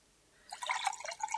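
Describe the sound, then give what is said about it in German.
Rosé wine is poured from a bottle into a glass until half full after a moment of quiet: a burbling, splashing trickle of liquid that runs for about a second with small glassy drips, fairly soft throughout. “Sylvia griff nach der Flasche Rosé auf dem Tisch und schüttete ihr Glas halb voll.”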